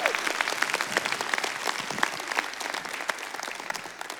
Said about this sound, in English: How about a nice hand? Give them a cheer.